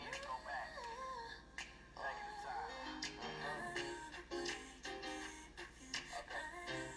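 A recorded song plays with a steady beat and melodic vocals, crisp finger snaps clicking in rhythm throughout; the music is full and continuous, with no talking over it.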